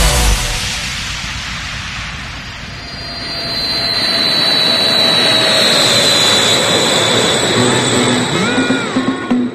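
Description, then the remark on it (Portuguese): A loud jet airplane engine roars steadily, a broad rushing noise topped by a high, thin turbine whine that rises and holds throughout. “Vamos pra LA. Vamos, pega o avião aí.”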